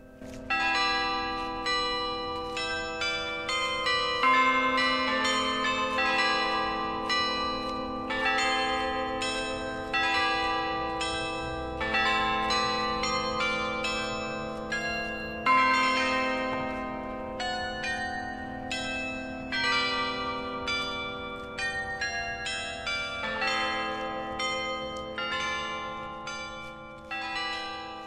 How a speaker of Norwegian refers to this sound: Klokkespillet du hører i bakgrunnen, det er Espen Melbø, domkantor i Tønsberg domkirke, som spiller den ukrainske nasjonalsangen på klokkespillet i Tønsberg.